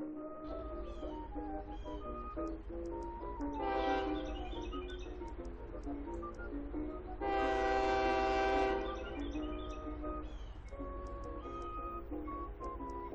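A train rumbles steadily as it arrives, its horn sounding two loud, sustained blasts over the low rolling noise of the rails, with faint bird chirps in the background.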